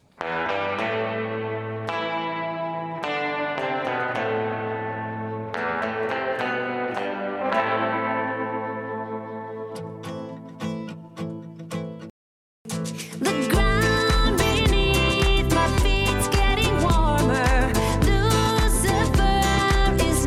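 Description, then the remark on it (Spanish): The second demo of a pop song, from September and more produced than the first demo, opens with sustained, harmonically rich chords and a steady pulse, briefly cuts to silence, then bursts back louder with dense drums and heavily effected, reverberant instrumentation. “Eh, el segundo demo es ya de septiembre y suena así.”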